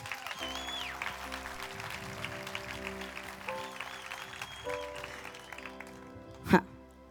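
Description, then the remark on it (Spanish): An audience gives a loud round of applause to God, clapping steadily for several seconds over sustained keyboard chords, a dense wash that holds at an even level before a single sharp, loud bang near the end. “¿Cuántos creen eso en esta noche y le dan un fuerte aplauso a su Dios?”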